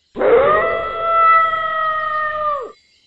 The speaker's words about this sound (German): Wölfe.